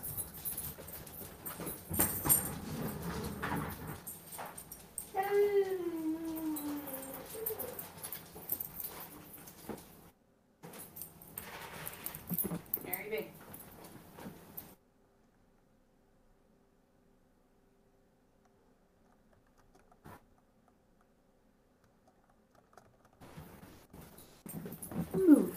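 A dog shuffles and moves about close by, letting out thin, rising whimpers in the first half, then the sound drops to near silence before faint rustling returns at the end.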